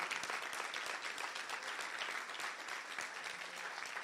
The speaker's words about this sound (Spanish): Vamos, denle ese aplauso fuerte al Señor. No es para mí, es para el Señor.